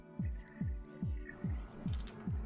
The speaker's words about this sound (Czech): Jo, a mimochodem, a slyšíte jenom z toho kumbálu. Ten zasraný kávovar se mi furt ne, nedaří spravit. Furt dělá rámus.